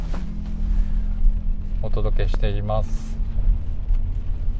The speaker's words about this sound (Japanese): 雨ですけどね、結構降ってるんで、もしかしたらこれね、録音した後にうるさかったら消すかもなっていうふうに思いますけど、まあね、雨音が入ってますけど、ご了承ください。